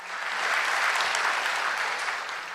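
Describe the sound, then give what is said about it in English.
A steady burst of audience applause, many hands clapping at once in a dense, even wash of sound that holds at a fairly loud level for a couple of seconds with no voices. “She deserves an applaud.”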